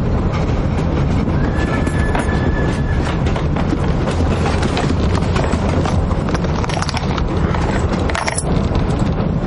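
A train to Auschwitz during World War II, in the 2006 drama film El Ultimo Tren a Auschwitz, rumbles steadily along the rails, with a dense low roar and continuous rhythmic clatter of wheels, plus occasional high metallic squeals and a brief tonal whine, loud throughout with no talking.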